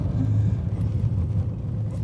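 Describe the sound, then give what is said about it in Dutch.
A Fiat Panda's engine rumbles steadily at low pitch for two seconds, a continuous, fairly loud drone with slight fluctuations as the car drives onto the farmyard of the Voshuis, a luxury group accommodation in Drenthe, with no voices. “We rijden nu het erf van het Voshuis op.”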